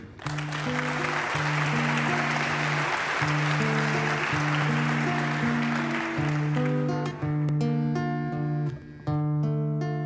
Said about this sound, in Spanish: Fuerte el aplauso.